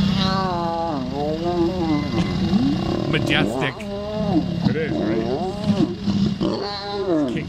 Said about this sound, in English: Here is lion mating